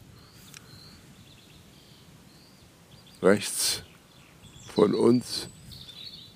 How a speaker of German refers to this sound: das Rotkehlchen mit seinem sehr zarten äh, Gesang, sehr melodisch, auch äh, mit sehr hohen Tönen drin